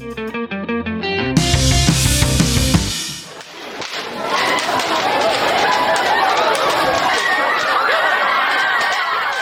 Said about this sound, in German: Ja, so hört sich das an, wenn in den USA am Black Friday mitten in der Nacht ein Kaufhaus seine Türen für die Kundschaft öffnet.